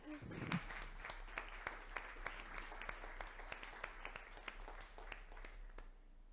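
An audience gives a big round of applause to a guest, a researcher on technology and ethics: many hands clapping in a dense, even patter with sharp individual claps standing out, sustained at a moderate level for several seconds before tapering off at the end.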